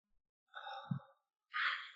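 An audible breath drawn in and then let out in a breathy sigh, no words spoken, quiet and intimate.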